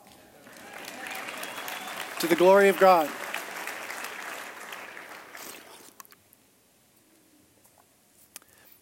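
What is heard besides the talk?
audience applause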